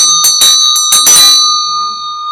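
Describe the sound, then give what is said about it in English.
A small ritual hand bell is played on the second line of a recited prostration practice, ringing in a quick flurry of strikes, its bright sustained tones shimmering and then slowly fading out, fairly loud with no voices. “The second line we play the bell.”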